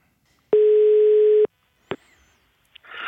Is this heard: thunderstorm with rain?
no